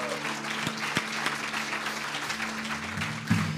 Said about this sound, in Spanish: Aleluya, que le aplaudamos al que salga del agua.